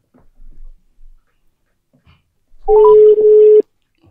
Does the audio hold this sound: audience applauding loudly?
no